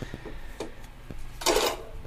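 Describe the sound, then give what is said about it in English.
A CD being inserted into a player: a few light plastic clicks, then a short, louder scraping slide as the disc goes in, with no voices. “I'm popping the CD in there so you can hear that going in”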